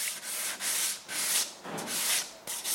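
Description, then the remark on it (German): In a workshop, an apprentice rubs sandpaper back and forth over sawn, planed and glued wooden music stands, about six steady, hissing strokes with brief pauses between them, fairly loud and with no one talking. “Jetzt machen wir die fertig, schleifen die, tun die Ölen Fett.”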